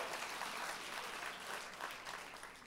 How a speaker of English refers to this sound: Come on, let's clap and thank the Lord together, Angelenos. Let's get a little bit of faith. That is a pitiful applaud.